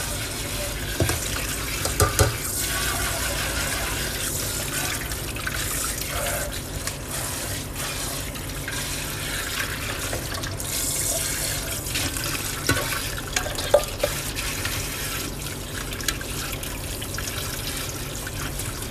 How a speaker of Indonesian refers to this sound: lu nggak tahu aku ngomong apa kan denger suara air aja lah ya